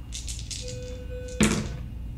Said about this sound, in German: Ähm, ja, du kannst, äh, das ist Close Combat, mhm. kannst einmal auf Close Combat würfeln.